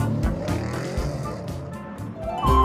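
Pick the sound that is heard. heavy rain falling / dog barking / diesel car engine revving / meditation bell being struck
diesel car engine revving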